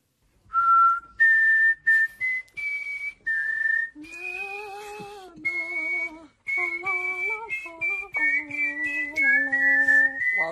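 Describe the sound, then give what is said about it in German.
Someone whistles the Eurovision anthem melody, a bright, stepwise, rising fanfare-like tune with sustained notes, later joined by a harmonizing second whistled or hummed line, with no speech. “Du hast die beiden schon kennengelernt und zumindest das mit dem Pfeifen der Eurovisionshymne, das klappt schon halbwegs.”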